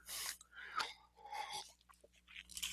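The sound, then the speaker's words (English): A person takes a sip of water, with a few short, wet slurping and swallowing noises spread over a couple of seconds, fairly quiet and with no talking. “I'm going to take a sip of water.”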